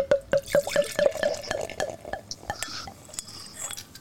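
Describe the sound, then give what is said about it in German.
Beer from a swing-top bottle glugs rhythmically into a glass, with quick bubbly gulps at first, then a softer fizzing splash as the pour settles. Fairly quiet, with no talking. “Und jetzt lasse ich es mal reinlaufen.”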